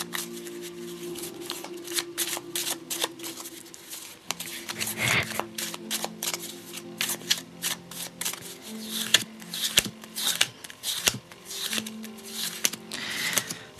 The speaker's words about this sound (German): ich habe jetzt die Karten gemischt und aufgelegt.